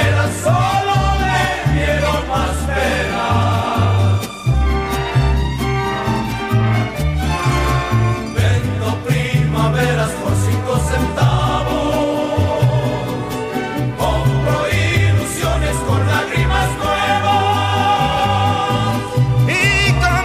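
A loud mariachi piece plays steadily throughout, with bright layered instruments over a bouncing, rhythmic bass line and no spoken voices.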